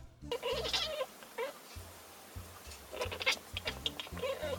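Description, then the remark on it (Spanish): Someone imitates the sound a cat makes when it sees a fly, chattering its teeth in rapid, stuttering clicks and bleat-like voiced bursts that come in two uneven flurries with a short pause between. “Y cada tanto, cuando ve una mosca, hace ese tipo de sonido que es como para hipnotizarla.”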